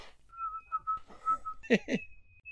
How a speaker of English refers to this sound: What's that noise? That's a bird outside. Oh, okay. Noisy little bastard. Can you hear it?